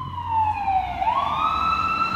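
An emergency vehicle siren wails steadily outside, its tone sliding down and then climbing back up in a long sweep, loud and continuous with a low rumble of traffic underneath.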